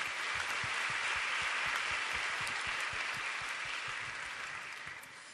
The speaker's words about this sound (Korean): 어, 더운 여름에 아우니치 현장에서 우리에게 승리를 주시고 또 삶의 현장에서 우리를 붙드시고 아, 인도해 주신 우리 하나님께 큰 영광의 박수 올려드리겠습니다.